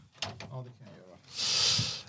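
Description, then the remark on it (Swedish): A person talks briefly, then a door swings shut with a breathy swish of air ending in a soft, muffled thud. “Stänger dörren så kostar det inget.”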